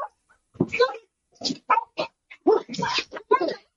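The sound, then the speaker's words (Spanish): Small dogs in a video bark in a rapid, irregular string of high-pitched yaps and yips, with a few whiny notes, moderately loud. “yo no confío en esos pinches perros que no te llegan a la rodilla”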